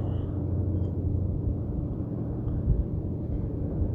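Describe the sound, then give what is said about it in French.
A steady, low engine hum from passing boats drones on without a break, with a dense rumbling texture and no voices. “Et grâce à vos oreilles et vos tympans qui vibrent au son de ma voix, et au son des vagues, et au ronron des bateaux qui passent, vous allez pouvoir plonger vers toutes ces sensations symbole du sommeil.”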